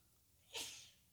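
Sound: sneeze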